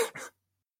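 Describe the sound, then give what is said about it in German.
A single quick sneeze, a sharp hissing burst followed by a brief second puff, over in about a third of a second, then silence. No one speaks. “Gesundheit.”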